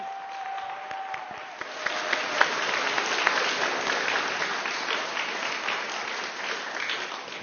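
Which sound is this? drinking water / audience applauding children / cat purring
audience applauding children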